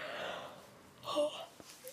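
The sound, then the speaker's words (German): A single breathy yawn, a long airy inhale that swells into a brief voiced groan before trailing off into quiet breath. No talking. “Oh, ich muss gähnen, warte.”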